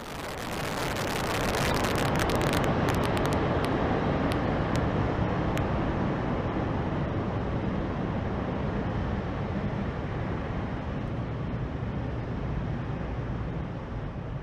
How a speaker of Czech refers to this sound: To je teda zkouška toho systému pro zaprave, zaplave, zaplavení rampy vodou při startu.